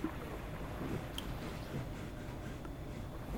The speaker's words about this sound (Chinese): 刷刷刷刷的抓着她的睡垫，还没抓完。海狗，海狗，海狗，你听听，你赶快睡觉。